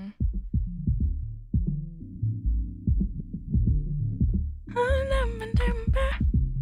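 Muffled pop music thumps through a ceiling from upstairs at Soverbroen, where songs are switched quickly, its bass beat pulsing steadily and low-pitched, with brighter vocals and synths briefly breaking through near the end. No one speaks.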